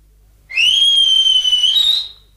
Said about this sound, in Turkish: Aa, …. …'ün ıslığı bu. Bahçeden seni çağırıyor olmalı.